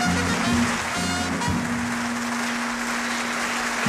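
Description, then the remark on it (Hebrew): Dense, steady applause from a live audience of soldiers for a band, from a Galei Tzahal army radio recording made about 50 years ago; a continuous wash of clapping with a faint low hum underneath and no voices. “מחיאות הכפיים לרחמו, …,”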